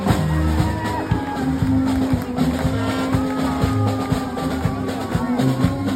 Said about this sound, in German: wie hier live von einer Hobby-Percussion-Truppe auf einem Wagen in der Parade in Lewis in Delaware, der ersten Stadt im ersten Staat, wie sie sich immer selber nennen